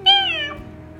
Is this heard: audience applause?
no